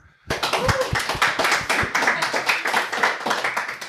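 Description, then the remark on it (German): A burst of audience applause starts abruptly and continues steadily, many hands clapping in a dense, bright patter with a few sharper individual claps standing out. “Ja, das Publikum kann man kurz applaudieren, bitte.”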